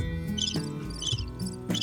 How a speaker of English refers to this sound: Yep, it's just crickets, other than me.